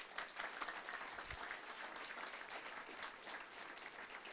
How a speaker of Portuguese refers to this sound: Pode dar um aplauso a Jesus.